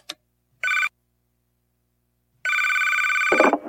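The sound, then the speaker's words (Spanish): A telephone rings on a monitored, recorded call, with electronic, buzzing tones: a brief burst, a pause, then a longer ring that ends in a sharp clatter, like the receiver being picked up. No one speaks. “Sí, estuve monitoreando la llamada, y la tengo grabada, Solo escucha lo sucedido.”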